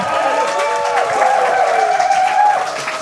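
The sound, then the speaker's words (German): A crowd applauds the contestants of a game show steadily, dense clapping filling the space, with cheering voices and whoops rising over it throughout. “Ja, einen Applaus für die Kandidaten.”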